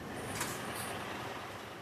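A blue truck's brakes being tested on a roller dynamometer inside an inspection hall at Taraldrud, south of Oslo, Norway: a steady mechanical roar with a thin high whine, a brief hissing burst early on, and no voices.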